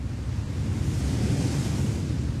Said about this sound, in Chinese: 结果正准备往回走呢，突然刮起了大风，飞沙走石的。